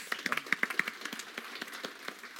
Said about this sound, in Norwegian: Applaus.